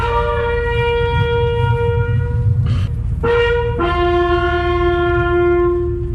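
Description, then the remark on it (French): A solemn bugle call honouring the dead after a funeral oration, played at a funeral in Mali: slow, long sustained notes, shifting pitch a couple of times, loud and clear over a low background rumble, with no one speaking. “Après l'oraison funèbre, la sonnerie aux morts.”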